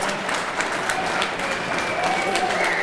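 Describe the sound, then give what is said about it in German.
Steady audience applause at the end of this year's Maker Faire, dense clapping from a crowd, continuous without pauses, with faint murmuring voices mixed in. “Was wir da jetzt hören, ist das Ende der heurigen Maker Fair. Das ist das Ende, ja. Wie man hört, hat es den Leuten gefallen.”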